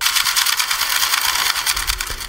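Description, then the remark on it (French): A boat passing, recorded 100 metres underwater: a continuous hissing, churning wash of noise with a fast rhythmic throb from the propeller, steady and fairly loud throughout. “Ça, c'est un bateau qui passe enregistré à 100 mètres sous l'eau.”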